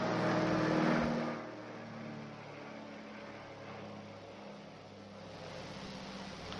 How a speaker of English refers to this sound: I'll wait for the plane to go over so you can hear me.